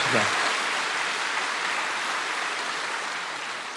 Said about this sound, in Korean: 할렐루야 우리 하나님께 큰 박수 올려 돌리십시다